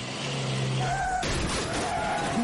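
A car's tires screech in a sustained squeal, then a loud crash of impact bursts in, followed by rattling debris and lingering engine noise.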